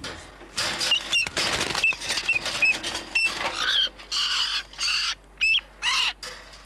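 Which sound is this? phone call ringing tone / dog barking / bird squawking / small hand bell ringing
bird squawking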